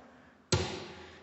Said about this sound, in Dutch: En dit is het geluid van hoe het winkeltje dan uh, dicht gaat.